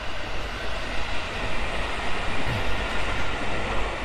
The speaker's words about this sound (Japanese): あれかうるさいね。電車乗ってうるさいね。